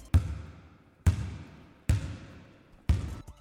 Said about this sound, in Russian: Каждый раз, когда я открывал дверь и заходил внутрь, я уже слышал стук баскетбольного мяча.